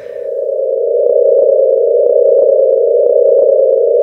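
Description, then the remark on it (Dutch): A sonified vibrating star that resonates with many tones at once: a loud, steady electronic hum built from several tones sounding together, pitched higher than the Pole Star's because this star vibrates slightly faster, with faint rhythmic pulses flickering through it, continuous for the full clip with no talking. “Hier hoor je duidelijk meerdere tonen tegelijk. Dus dit is een ster die trilt, die galmt met heel veel klanken tegelijk.”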